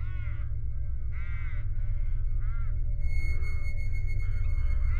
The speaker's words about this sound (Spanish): Era de noche. Escuchaba aletear y graznar a los cuervos sobre el tejado.